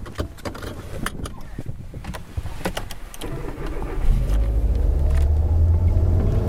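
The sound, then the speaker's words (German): A few sharp clicks and thumps from inside a car, then the engine starts up and settles into a loud, steady rumble as the car pulls away to drive back to Bremen, shortly before midnight. “Mit dem Auto geht es für mich zurück nach Bremen.”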